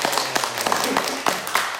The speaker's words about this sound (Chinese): 感谢主，我们都蒙福，我们给耶稣一个掌声啊！感谢主。